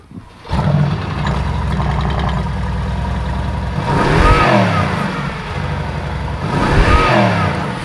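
A big V8 eight-cylinder car engine cranks and fires up, settling into a deep, loping idle before being revved hard twice, each rev swelling loudly and falling back.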